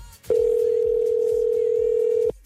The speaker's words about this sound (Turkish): Aa bu nasıl çalıyor ya bu telefon? Vallahi.